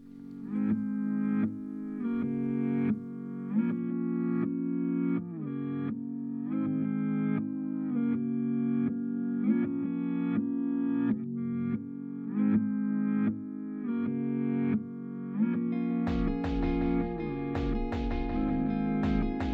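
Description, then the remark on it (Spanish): A looping reversed sample swells in steady rhythmic pulses with an arpeggiated synth line, fairly loud and processed; punchy electronic drums join for the last few seconds. No one speaks. “Y luego eh, lo que he hecho pues ha sido simplemente añadir pues un arpegio y una batería electrónica”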